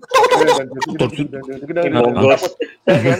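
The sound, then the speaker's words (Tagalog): A man vocalizes a dramatic melody, imitating old action-film theme music with a warbling, sung-hummed tune that runs for about three seconds with a brief break near the end. “ang gustong gusto ko noon yung tunog ng music pag Tony Ferrer yung pelikula”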